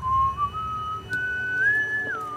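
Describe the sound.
A single clear whistled melody, slow and wavering, stepping up through a few sustained notes before dropping at the end, heard alone over a faint low background rumble.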